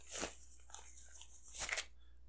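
A taut dice bag being opened: two short, crinkly bursts of rustling fabric about a second and a half apart, with quiet stillness between them and no talking.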